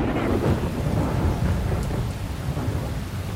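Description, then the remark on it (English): Heavy rain pours steadily while deep thunder rumbles continuously underneath, a loud, dense storm wash that fills the whole stretch with no voices present. “As he heard this, Piaten stood up with such a rage that it started to rain inside his court and people had to hold on to the pillars of his great hall to avoid being swept away by the water.”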